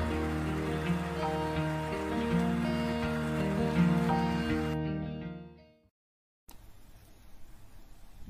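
Sustained musical tones fade out into a brief silence, then a steady, dense, even hiss of falling rain takes over for the last couple of seconds.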